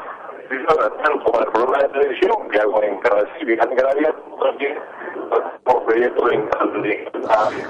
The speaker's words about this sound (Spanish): se nos va, se nos va la comunicación. Te escuchamos muy mal